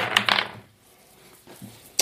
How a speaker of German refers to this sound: Würfeln wir alle gleichzeitig.